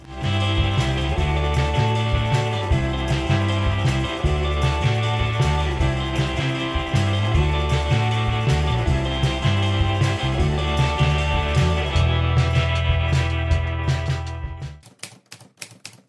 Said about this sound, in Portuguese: Toca a máquina de escrever.